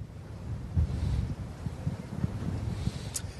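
Strong wind from the first autumn storm, Aurore, buffets the microphone in a continuous low roar with gusty surges, on the seawall at Vimereux, Pas-de-Calais, northern France, in the morning. Nobody speaks.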